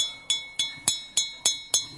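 Six evenly spaced, bright clinks as a man standing up in a restaurant taps a drinking glass, each ringing briefly with a clear high tone. Crisp, steady rhythm, no talking.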